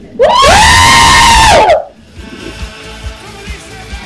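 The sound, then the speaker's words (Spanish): A group of at least four or five girls in Peru lets out one loud, sustained high-pitched scream lasting over a second, sounding thin and compressed through a phone line, then it cuts to quiet low murmuring. “Me dejaron sordo. ¿Cuántas hay ahí? Hay un montón.”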